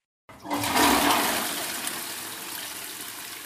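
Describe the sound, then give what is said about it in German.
A toilet flush used as a jingle: a toilet flushes with a sudden loud rush of water that peaks quickly, then settles into a steady, gradually fading gurgling hiss. No one speaks. “Gott sei Dank haben da, wir dieses Klo-Jingle.”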